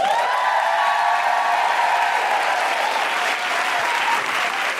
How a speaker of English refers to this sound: please put your hands together and welcome to the Sydney Opera House stage the wonderful Geraldine Hickey.